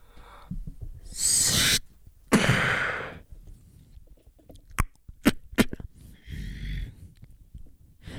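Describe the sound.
A voice performing beatboxing vocal percussion: breathy hissing bursts and low hoot-like tones, then a run of sharp clicks and snaps in an uneven rhythm, fairly loud with no words.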